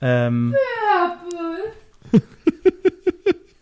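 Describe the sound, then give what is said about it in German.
A boxer dog whimpers in the background, a series of short, high whiny yelps in quick rhythmic succession, following a brief stretch of a person talking. “Ja, genau, das ist unser Hund. Ein Boxer.”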